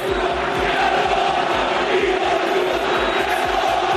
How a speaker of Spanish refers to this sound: Bueno, lo que seguimos es con la polémica. Escuchen el Villamarín gritándole esto a Yago Aspas.